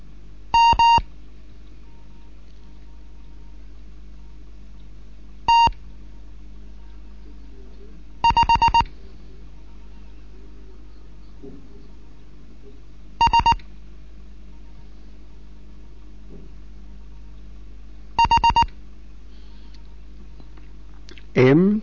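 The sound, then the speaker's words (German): Morse code beeps from a Morse lesson by amateur radio station DJ1 Kilo November in Bremen: brief bursts of a steady, mid-pitched tone, each group of dots or dashes separated by pauses of several seconds, sounding over a constant low background hum. “Hier ist DJ1 Kilo November in Bremen mit einem Morseunterricht.”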